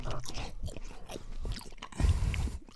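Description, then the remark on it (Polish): Someone bites into and chews a chocolate, with crunchy, crackling bites and wet chewing sounds in an irregular rhythm, fairly loud and with no talking. “ja znowu sobie wziąłem czekoladkę, nie myślę, że będę gadał.”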